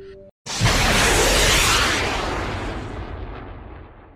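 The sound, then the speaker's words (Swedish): A loud missile-fire and explosion effect: a sudden roaring blast bursts in after a brief silence, then a rumbling, hissing wash slowly fades over several seconds. No one speaks. “Och det gör att Rabbits missar Grimblock med sina missiler.”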